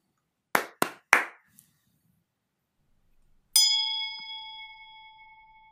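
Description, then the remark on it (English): Three sharp hand claps in quick succession, then after a short pause a single bright bell strike rings out, its clear metallic tone slowly fading away. “Oh, um, now I'm supposed to clap my hands three times and ring this bell.”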